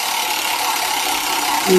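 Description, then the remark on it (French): A prize roulette wheel spins to pick a gift, with a steady, rapid whirring rattle that holds even and fairly loud throughout, with a brief voice-like tone creeping in right at the end. “Alors, on va lancer la roulette. Tu me dis stop.”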